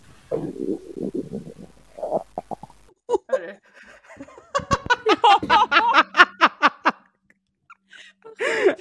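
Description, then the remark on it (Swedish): A stomach gurgles and rumbles in a string of bubbly, irregular pulses, moderately loud, with brief quiet gaps and a short final gurgle. “Hör du mig, mage? Hör du den?”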